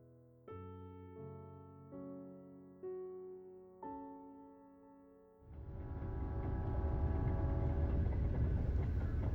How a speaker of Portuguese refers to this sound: O trem sacudia de um lado para outro, sobre os trilhos gelados, cortando a paisagem hibernal.